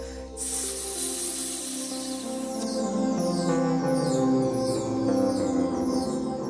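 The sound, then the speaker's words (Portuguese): A person, lying belly-down with hands pressed to the ground and chest and head raised, blows air out of the mouth between the teeth in one steady, breathy snake-like hiss lasting a couple of seconds, with gentle music playing continuously underneath. “Soltem um ar pela boca entre os dentes, imitando o som de uma cobra.”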